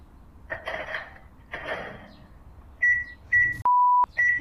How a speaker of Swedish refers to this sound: Mikrovågsugn. Ja. En mikrovågsugn.